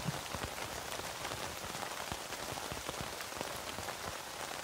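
Steady rain patters on a tent, a dense hiss dotted with countless sharp droplet ticks, holding an even level throughout with no voices.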